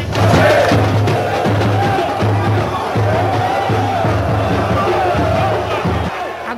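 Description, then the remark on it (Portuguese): A loud, dense crowd of Furacão football fans chants and cheers together at the airport, seeing the team off before it flew to Montevideo for the Copa Sul-Americana final, with rhythmic pulsing shouts and a steady low drumbeat running under the roar, continuous throughout. “O furacão também chegou em Montevideo no fim da tarde de ontem, mas antes de embarcar, recebeu uma grande festa da torcida no aeroporto.”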